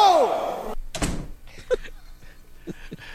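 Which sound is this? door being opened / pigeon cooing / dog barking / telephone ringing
door being opened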